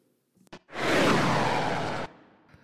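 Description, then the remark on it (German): A dog lying asleep and dreaming lets out one long, breathy huff, close and fairly loud, lasting over a second, preceded by a faint brief snort or click; otherwise quiet, with no talking. “Und wenn er träumt, macht er so richtig abgefahrene Geräusche, weil ich habe das Gefühl, der träumt davon, wie er galoppiert.”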